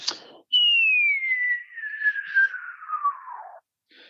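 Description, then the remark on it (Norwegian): A voice imitates the whistle of a falling bomb: a single long whistled tone glides steadily downward for about three seconds, with a brief breathy burst before it and a short sound at the end. “Bam! den der plystrelyden der, eh, så vi det endte med et smell, da, så var det om å finne ut Prøve vi gjette oss til hvor det, hvor det smellet kom fra.”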